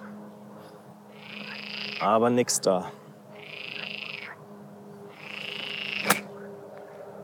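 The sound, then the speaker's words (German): Frogs croak on a golf course in three drawn-out, raspy bursts spaced a second or so apart, steady, with a man briefly speaking between the first two and a sharp click near the end. “Und die Frösche versuchen mich zu irritieren.”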